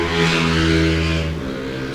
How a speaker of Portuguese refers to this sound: estúdios aqui abalados pelas motos passando.